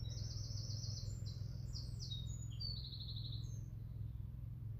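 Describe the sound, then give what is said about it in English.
A bird sings a series of high, bright chirping phrases and trills outdoors among flowering plants and blossom near a hamlet, set against a steady low outdoor rumble with no voices. “just some beautiful bird song. I was hoping to catch it.”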